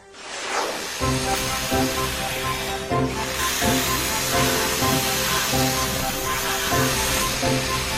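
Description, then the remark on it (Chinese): A steady, loud hiss of pesticide being sprayed on diseased tree branches runs through the whole clip, while after the first second a sustained tonal hum, like background music, plays underneath. No one speaks. “爷爷，我们把生病的树枝都剪掉了，并且还喷上了药，现在应该没事了。”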